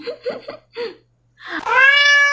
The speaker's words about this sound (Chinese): 不然就是很多人的鬼压床啊，其实就是你家的猫压在你身上，叫你起床翻饭而已啊